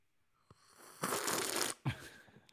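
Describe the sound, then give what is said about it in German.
A noisy slurp of tea lasting under a second, quickly followed by a shorter second sip, with no talking around it. “Natürlich musst du jetzt an deinem Tee schlürfen.”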